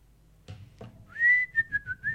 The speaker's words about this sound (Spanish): Así yo te paso el programa este, y, y- y me voy silbando bajito.